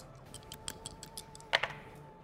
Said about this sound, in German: Okay, dann würfel mal.